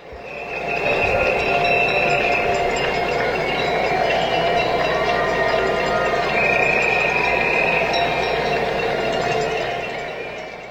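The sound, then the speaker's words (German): Many people clap together from windows across a New York city street at evening, a dense, steady patter of echoing applause, with faint whistles and cheers mixed in throughout. “Also, das hört sich stark nach Händeklatschen an”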